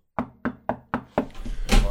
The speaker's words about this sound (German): ich, hoff, ich klopfe mal auf Holz, Achtung.